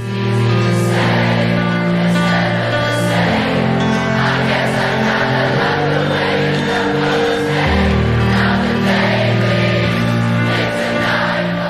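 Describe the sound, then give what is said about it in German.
Tens of thousands of festival-goers at a Saturday festival sing along as loudly as possible over music after the singer's voice partly fails, the massed voices blending into sustained, wavering pitches with a steady beat underneath, staying full and loud for the whole stretch. “Er bittet daraufhin das Publikum so laut wie möglich mitzusingen.”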